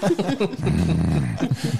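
A person lets out a low, rumbling growl of displeasure lasting under a second, close and fairly loud, with brief bits of voice just before and after it.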